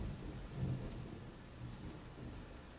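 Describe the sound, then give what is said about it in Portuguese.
A low rumble of thunder rolls on for a few seconds under a steady hiss of rain, fairly faint and with no voices. “Isso foi um trovão ou foi impressão minha?”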